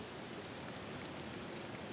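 heavy rain pouring down

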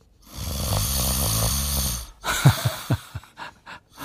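snoring

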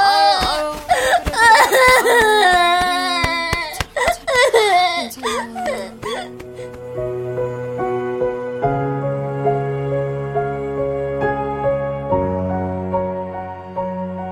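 child crying

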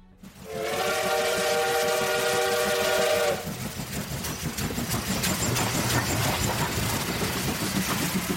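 train running on rails

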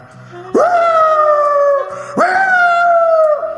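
dog howling

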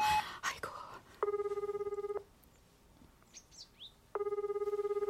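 telephone ringing

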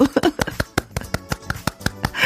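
hands clapping

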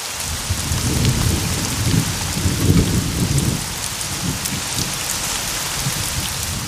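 rain falling outdoors

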